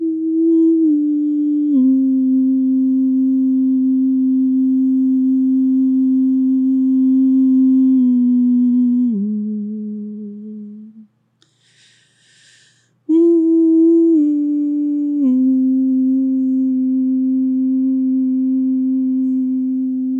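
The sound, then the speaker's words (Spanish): A soft, steady hum lulling a child, unbroken, slowly stepping between a few low notes, pausing briefly for a breath around the middle before continuing just as gently. “Y yo tengo una técnica que, justo de la que hablabas, de eh, hacer un abrazo mariposa y hacemos un abrazo mariposa y arrullamos con un sonido al niño.”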